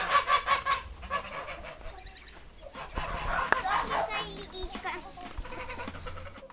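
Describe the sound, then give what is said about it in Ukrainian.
A flock of geese raised for meat honks loudly and almost nonstop, their harsh overlapping calls coming in rapid bursts with a few sharper cries rising above the din. “А петухи, э, гуси и утки, они все потом на мясо, ну, то есть часть себе, часть на продажу.”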